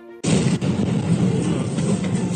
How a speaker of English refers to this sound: Thunderous explosions shook the heart of the Ukrainian capital this morning, right in the middle of rush hour, leaving streets near the central Maidan square in flames.